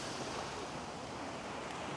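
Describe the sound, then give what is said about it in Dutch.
Steady roar of ocean surf breaking, a broad continuous wash of noise with no pauses, even in loudness, with no voices present. “Als het goed is, hoor je de branding. De branding van de oceaan in dit geval.”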